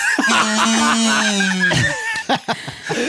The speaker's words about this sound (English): what sound does this kazoo make when I put it in my mouth and hum?